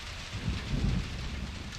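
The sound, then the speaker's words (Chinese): A heavy rain downpour in Zhengzhou on the evening of July 20, at the rainstorm's peak, pours down hard enough to break through an umbrella, as a steady, dense hiss, with a deep rumbling roar that swells briefly midway through. No voices can be heard. “他撑起伞想走回宿舍，瞬间倒下的雨水直接砸破了伞面。”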